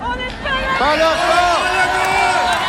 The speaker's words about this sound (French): Physio, ce sont toutes ces personnes qui sortent dans la rue et qui élèvent leur voix ensemble pour crier haut et fort, on n'est pas d'accord.